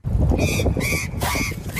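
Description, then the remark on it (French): Three short, buzzy honks from party blowers fitted with a tube on a cyclist's helmet sound in quick succession, loud, over a steady rumbling background noise. “J'en ai même trouvé un qui à a un système avec un tuyau et des langues de belle-mère.”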